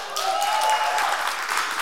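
A crowd breaks into steady applause, a dense wash of many hands clapping at even loudness throughout, with a faint sustained tone briefly audible underneath.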